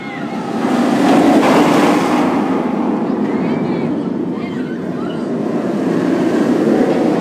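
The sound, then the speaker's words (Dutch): A B&M roller coaster train rumbles steadily along its track at a large amusement park beside Lake Erie, the so-called B&M roar: a loud, continuous low roar with rattling texture that swells and eases slightly over several seconds, with faint voices mixed in. “Ja, de zogenaamde B&M Roar is dit.”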